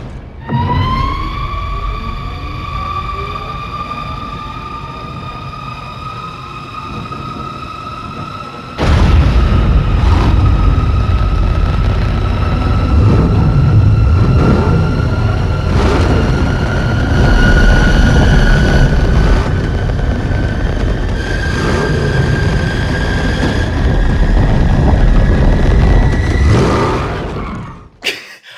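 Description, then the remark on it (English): A high turbine-like engine whine from the Batmobile climbs in pitch, then a loud, rumbling roar erupts and sustains for nearly twenty seconds before cutting off abruptly as the vehicle screeches to a halt. “Do you want me to play the Batman, the Batmobile noises?”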